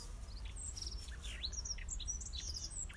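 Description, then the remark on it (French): Several birds chirp and tweet in quick, overlapping calls near a nest, fairly quiet against a low steady background rumble, with no one speaking. “On entend justement tous les oiseaux.”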